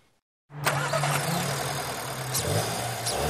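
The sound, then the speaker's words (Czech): A new car engine cranks and catches after a moment of silence, then runs steadily with a low hum and slight revs, fairly loud. “Start nového motoru. Tak tenhle zvuk je v českých garážích slyšet čím dál tím méně.”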